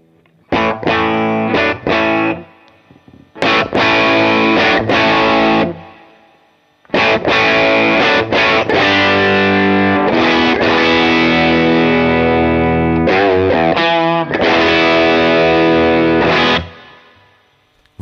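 Thick, overdriven electric guitar on the bridge humbucker pickup, with the low switch engaged downward to thicken the sound, plays loud chords and sustained riffs alone, in several bursts separated by short pauses, with a heavy, saturated low end.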